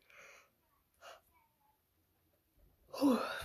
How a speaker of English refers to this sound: what is that like the fifth yawn today? Shoot, and I had an energy drink. I don't know why I'm so tired.